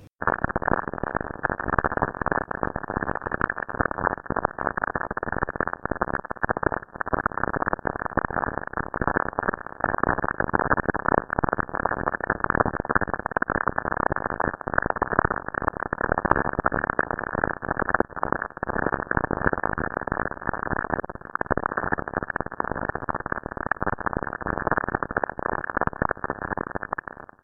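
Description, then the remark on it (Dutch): Radio static from lightning on Saturn, each small click one lightning strike, about 6 to 10 strikes per second: a dense, muffled crackle of rapid clicks and pops running steadily and loudly for the whole stretch with no voices. “28 seconden blikseminslagen op Saturnus.”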